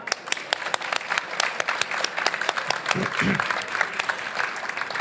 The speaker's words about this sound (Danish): Og dig, der lytter med, grunden til, at du hører nogen klappe her, det er fordi, at Radio 4 er rykket ud og sender her hele weekenden fra Bogforum her i øh, København.